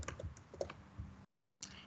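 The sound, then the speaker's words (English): Rapid typing of the command help on a computer keyboard, a dense run of crisp key clicks that stops abruptly, then after a short silence resumes with another burst of keystrokes. “Uh, you can also see uh, the list of all the available building commands by typing help.”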